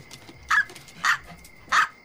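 A dog barks three times, short sharp high-pitched yaps spaced about half a second apart, with quiet between them and no one talking.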